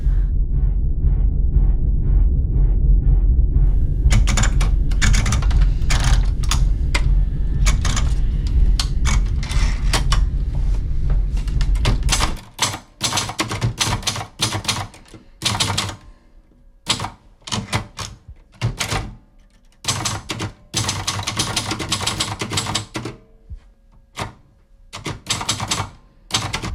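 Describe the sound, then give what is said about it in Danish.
Loud, rapid mechanical knocking of an MRI scanner with a person lying alone inside: first a deep, steady droning pulse, then sharp staccato bursts of clattering taps in irregular groups, with no voices. “Og så gik det op for mig, at, at nu vil jeg sikkert dø, og jeg vil dø her, alene i den her MR-scanner.”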